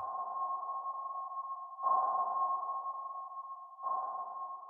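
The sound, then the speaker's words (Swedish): Steady, tonal sonar pings around a single pitch, repeating roughly every two seconds, each starting with a sharper onset and ringing out continuously, fairly loud and with no voices. The pings come from echo sounders, with 600 beams, used from a search boat to scan Loch Ness. “Så användes satellitnavigeringsteknik och 600 ekolodstrålar.”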